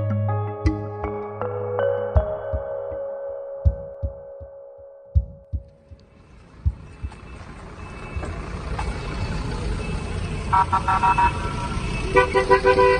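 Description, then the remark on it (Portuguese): Buses arrive in Zaporizhzhia, Ukraine, carrying 101 people rescued from the Azovstal industrial complex in the Mariupol region: deep, rhythmic engine thumps rumble in, then a swelling wash of traffic noise as several horns toot and blare in short bursts. “Estamos a ouvir a chegada à Aporídia de autocarros que resgataram uma centena de pessoas da região de Mariupol.”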